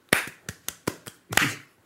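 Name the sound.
hands clapping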